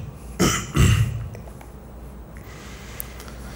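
A young man clears his throat in two quick, rough bursts, one right after the other, then quiet background with no talking.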